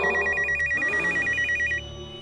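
A cell phone rings with a rapid, high electronic trill, pulsing steadily for almost two seconds before cutting off, leaving a low background hum.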